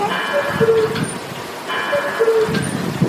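The world's largest cuckoo clock, in Triberg, sounds its two-note cuckoo call twice as the cuckoo hops out, evenly spaced, over a steady outdoor background of traffic hum and crowd noise.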